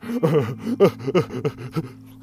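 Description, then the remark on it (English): A voice imitates a hysterical child's heavy, frantic panting as he fails to catch his breath: about seven quick, voiced gasps in an uneven rhythm, fairly loud, with no words spoken. “the heavy breathing, not catching up with his breaths.”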